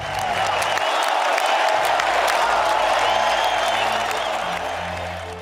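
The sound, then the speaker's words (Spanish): A loud, sustained ovation for Málaga: dense applause from a large crowd, steady and unbroken for several seconds, with a few scattered cheers and voices mixed in. “Fuerte ovación también para Málaga.”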